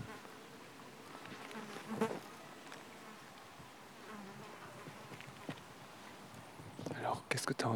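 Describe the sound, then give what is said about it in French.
Crickets chirp in a steady, soft outdoor drone, with scattered clicks and light thumps that grow busier and louder toward the end. “J'ai entendu euh, des criquets qui faisaient crrr, Et, voilà.”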